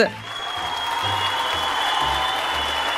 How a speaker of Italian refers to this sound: No, ma, ma basta con questi applausi finti, ma ti prego. Ma creano un ambiente più consono, più solenne.